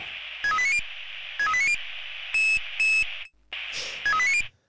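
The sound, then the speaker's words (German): Christmas bells ring in short bright rising runs of notes, repeated several times with brief pauses, over a steady hissing noise. The tone is thin and electronic, and nobody speaks. “Und dann klingen die Glocken natürlich süß oder sie klingen so.”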